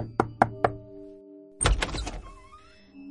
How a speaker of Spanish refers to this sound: Una hora después, llegó a la nueva dirección y llamó a la puerta.